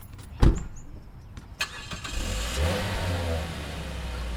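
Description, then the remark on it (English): A sharp thump, then a van engine roars, revving steadily louder as it drives off from the parking lot of a commercial fishing store in Portsmouth, with no voices. “Get in the van and be quick about it.”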